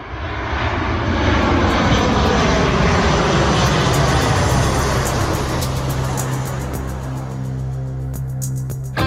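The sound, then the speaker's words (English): The engine of an F-22 Raptor stealth fighter jet roars loudly and continuously for several seconds, a dense rumble that eases slightly toward the end as a high whining tone emerges. No one speaks. “We learned this week that the US Air Force's F 22 Raptor stealth fighter, long controversial, horrendously expensive, and eventually abandoned, had at last proved its worth in air to air combat, a mere decade or so after the last one was delivered.”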